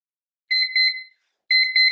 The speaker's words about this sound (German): Ich nutze dafür meine Time Timer Uhr. Das ist so eine Uhr, wo die Zeit ähm, zurückläuft quasi und dann piept sie.